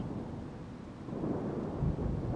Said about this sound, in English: You get closer and closer as the storm draws near and the wind blows with tremendous speed.